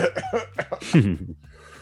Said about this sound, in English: when I cough off to the side, I'm like,